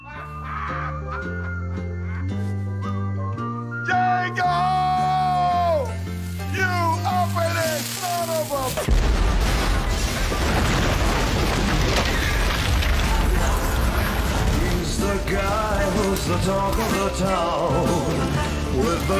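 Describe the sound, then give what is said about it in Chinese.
A melodic music passage plays, then a villa rigged with explosives blows up in the film Django Unchained (Quentin Tarantino, 2012), a sudden loud blast about halfway through, followed by a sustained roaring, crackling rumble that continues beneath the ongoing music. “在爆炸的火光里，江哥带着媳妇儿远走高飞，从此浪迹天涯。”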